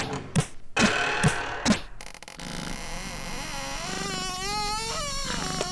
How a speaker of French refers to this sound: Une grande porte se dresse face à vous, tel un coucher de soleil se dresse face à la mer. Elle s'ouvre doucement maintenant.